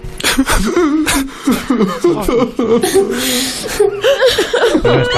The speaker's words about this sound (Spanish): No están, llorando, ¿no? claramente. llora que te llora, por Dios, qué pena me están dando. Tristes, ¿no? O sea, como infelices.